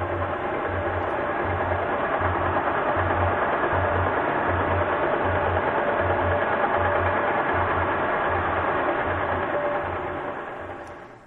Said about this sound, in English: noise is the sound of the ship. And, um, and eventually in this track, a, a blue whale comes along, but you can you can get a sense of how the ship is interfering with the sound that the, that the whale is making.